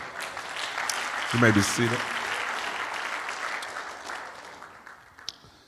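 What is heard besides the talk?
audience clapping hands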